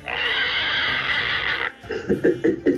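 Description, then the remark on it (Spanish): A person imitates a pig: one long, shrill squeal lasting over a second, then a quick series of short, rhythmic grunting snorts, all loud. “Haz como puerco.”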